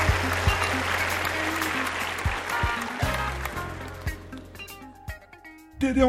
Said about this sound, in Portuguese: Você que tá no ônibus agora, sentado, escutando o podcast, levanta, por favor. E aplauda o diretor, vai.